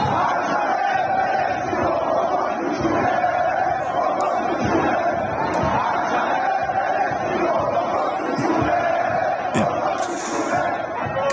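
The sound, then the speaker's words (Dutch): A large crowd of Iranians chants and shouts together in unison in Persian, telling someone to stick the Palestinian flag up their backside, a dense, loud roar of many voices that carries on steadily for the whole stretch without a break. “dat zij in koor begonnen te roepen: stop die Palestijnse vlag toch in je reet.”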